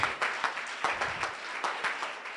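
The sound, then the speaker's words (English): An audience in church on a Sunday morning claps together, a dense patter of many hands with sharper, louder claps standing out at a loose, fairly steady beat. Moderately quiet throughout, with no clear voices. “Yeah, it's a place to clap.”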